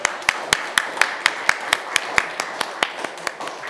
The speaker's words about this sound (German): Und so komme ich näher dazu, jetzt könnt ihr beide herstehen und ich können euch beiden einen Applaus geben.